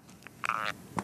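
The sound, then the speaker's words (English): A folding phone closing with a brief squeaky creak lasting about a third of a second, bracketed by faint clicks, with no talking over it. “Yeah, and here it is closing.”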